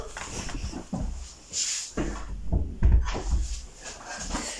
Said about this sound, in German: Ich mache noch schnell die Tür dazu.